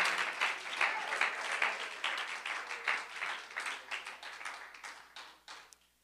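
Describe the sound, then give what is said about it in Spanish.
Sustained applause from an audience, a dense crackle of many hands clapping at a steady level for several seconds before thinning out and fading at the end. “Si ese aplauso es para el maestro, que suene con su corazón para él.”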